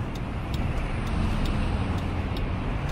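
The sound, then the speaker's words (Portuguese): Steady low road rumble of a car moving along the Marginal Tietê highway in São Paulo, Brazil, in light traffic at about 90 km/h, with continuous engine and tire noise filling the low end and faint periodic ticking above, no voices. “Aqui, Marginal Tietê, tá tranquilo o trânsito.”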